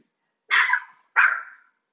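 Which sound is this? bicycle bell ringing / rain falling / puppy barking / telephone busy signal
puppy barking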